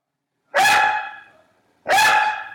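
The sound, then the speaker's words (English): A dog barks twice, loud, each bark sharp at the start and trailing off, with a pause of about a second between them. No one speaks. “I've never interviewed a dog before.”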